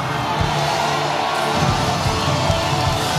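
A large church audience claps and cheers loudly and continuously, a dense wash of applause with scattered whoops and shouts rising out of it.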